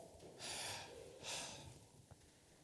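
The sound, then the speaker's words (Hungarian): Slow, airy breath sounds: two soft rushes of air, each lasting about half a second, with a brief pause between them and no talking, as a person slowly and audibly exhales a breath. “Igazából egy lehelet.”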